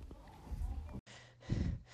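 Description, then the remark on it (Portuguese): Heavy, out-of-breath panting: a few loud, rough breaths in quick succession, performed by a voice acting winded as the character Pedrinho, heading to the Capoeirão forest, with no words spoken. “Pedrinho falou ofegante.”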